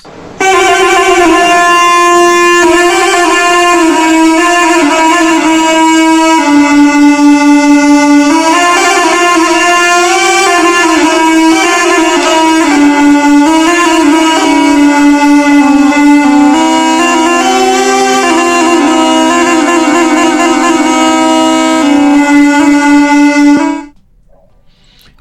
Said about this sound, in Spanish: Eh, luego tenemos eh, la flauta de dos tubos, que yo había mencionado previamente, el laulos. Vamos a escuchar cómo suena el laulos.